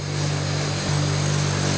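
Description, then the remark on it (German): A motor-driven sisal polishing wheel whirs steadily with a low, droning hum and a hiss of friction, shifting slightly in tone partway through as a small pair of anvil scissors is deburred and cleaned against it. “Ja, ist aber nur indirekt eine Polierscheibe. Die nimmt auch diesen Grat weg.”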